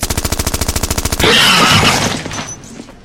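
machine gun fire

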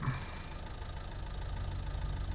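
car engine idling

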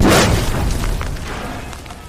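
dynamite explosion

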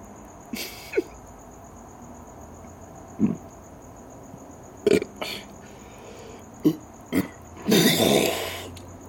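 burping

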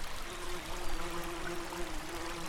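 flowing river water

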